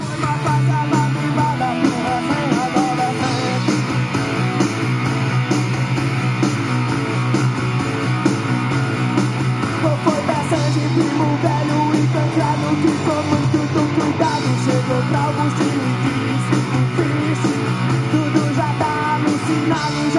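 Loud, driving Brazilian rock music plays steadily for the whole stretch, a dense full-band sound with distorted guitars and energetic vocals, without any talking over it.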